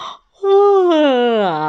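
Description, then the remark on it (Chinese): A person acts out the yawn of a story character who has just woken up and stretches: a quick breathy intake, a short pause, then a long, loud voiced groan that holds steady and sags slightly in pitch. “聪明先生被这个聪明的闹钟吵醒后，伸伸懒腰，打了一个哈欠。”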